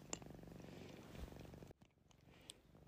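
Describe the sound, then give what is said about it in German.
A cat named Kitty purrs in a steady, low rumbling rhythm for nearly two seconds, then the purring cuts off, leaving quiet with a few faint clicks. “Und das Schnurren im Hintergrund ist die Kitty.”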